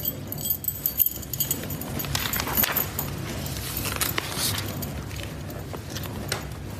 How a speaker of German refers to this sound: Hier ist die Schlüssel für eure Hütte.